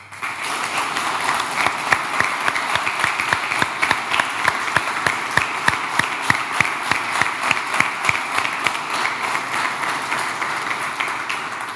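Sustained audience applause fills the whole stretch, a dense wash of many hands clapping at steady loudness, with sharper individual claps popping out irregularly above the crowd; the audience applauds the volunteers who worked in the opposition primary election.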